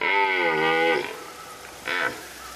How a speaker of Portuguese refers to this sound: E olhem, olhem! Vai ali um veado a chamar a fêmea. Ora, ouçam.